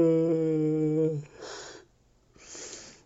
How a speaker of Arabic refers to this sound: تثاءب خجلان وهو يحمل بطاقة جميلة صنعها